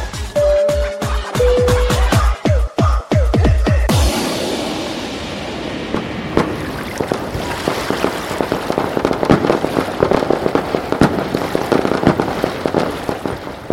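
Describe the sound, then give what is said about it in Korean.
Fireworks at a night-time fireworks festival on Pattaya beach, Thailand, go off in a rapid, loud volley of booming bursts with a couple of whistles, then settle into a dense, continuous crackling and popping that carries on with no voices. “오늘은 불꽃놀이 축제가 있는 날. 아, 불꽃놀이 너무나 아름답습니다.”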